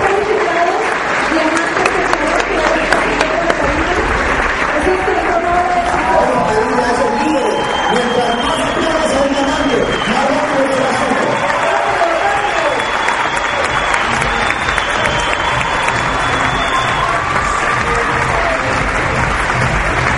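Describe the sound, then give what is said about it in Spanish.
A large crowd applauds continuously with dense, sustained clapping, punctuated by whistles and shouts of cheering, as leaders applaud their 'diamonds' crossing the stage; the noise stays loud and steady throughout the whole stretch. “Y esos líderes que identifiquen a sus diamantes al frente aplaudan con todo el corazón.”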